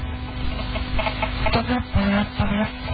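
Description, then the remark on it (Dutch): A chicken clucks in a few short, throaty bursts toward the end, over a steady low hum and faint background noise, with no one talking. “Ja, dat is kip.”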